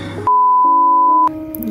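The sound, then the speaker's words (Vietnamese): A single loud voicemail prompt beep after an unanswered phone call, a steady pure tone held at one unchanging pitch for about a second, with faint muffled voices and background sound just before and after. “Ừ, thế thì lúc mà người ta không nhấc máy thì thường sẽ có cái tiếng kiểu thuê bao quý khách vừa gọi hiện không liên lạc được vui lòng để lại lời nhắn sau tiếng bíp”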